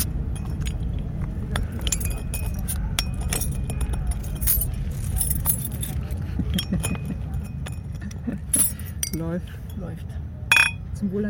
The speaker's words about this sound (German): Wir machen die Flasche auf.